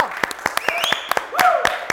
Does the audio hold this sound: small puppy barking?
no